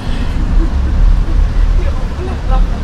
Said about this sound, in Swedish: Ja, då är vi på bussen tillbaka från, var är vi någonstans?